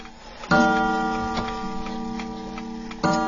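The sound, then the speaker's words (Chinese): A mechanical clock ticks in a slow, uneven rhythm, with two sharp metallic strikes whose bright ringing tone lingers and slowly fades between them. No one speaks. “这个钟呢，就等于是男子汉了啊！真有的钟很漂亮、很富贵、很豪华。比如你看这个，”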